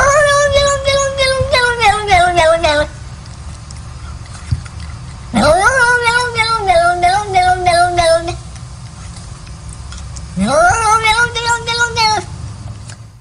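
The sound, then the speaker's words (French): A cat lets out three long, drawn-out meows, loud, each wavering then sliding downward in pitch, separated by short pauses over a low background rumble. “C'est un chat qui dit non, non, non, non.”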